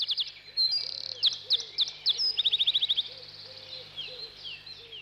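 A bird whistles cheerfully in bright, high chirps and quick trills, the notes tumbling rapidly over one another, with softer lower calls and a faint steady hum underneath.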